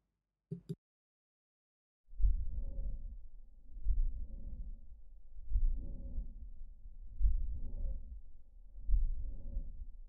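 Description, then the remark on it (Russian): A slowed-down heartbeat recording with a late systolic murmur and no click: low, muffled thumps repeat about every two seconds, each followed by a soft whooshing swell, after a brief tap at the start. “Конечно-систолический шум без щелчка. Для лучшего восприятия воспроизведение замедленно.”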